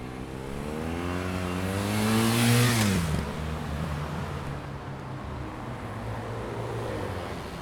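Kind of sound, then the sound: vehicle, city road traffic noise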